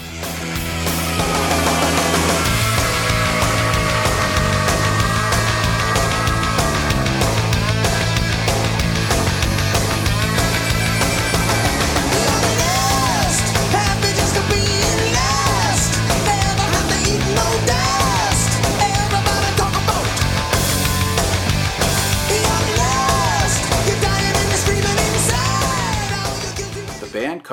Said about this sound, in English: comes charging out of the gate with his fast, energetic rocker that heavily features … drums